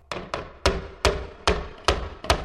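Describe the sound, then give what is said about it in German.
Seven sharp hammer blows strike hard pudding in a fairly steady rhythm, each a crisp knock with a short ringing decay, chipping small pieces out of it. “Was willst denn du mit dem Hammer und dem Mais? Das wirst du gleich sehen.”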